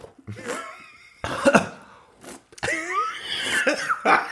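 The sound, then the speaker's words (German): A loud fit of coughing after beer foam sprayed directly into the throat: several harsh, spluttering bursts in quick succession, broken up by strained, throaty gasps and wheezy voiced breaths. “Das war jetzt kein Corona-Husten, sondern weil mir der Schaum direkt in den Hals gespritzt ist.”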